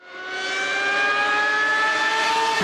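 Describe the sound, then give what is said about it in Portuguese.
A car engine roars loudly as the car passes by very fast, its whining pitch climbing steadily, with no voices over it. “Então, assim como, assim como esse carro passou super hiper mega rápido”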